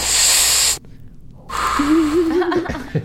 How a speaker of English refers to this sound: That? Oh, that, that's but, a new sound effect. Yeah. This is the weed sound effect.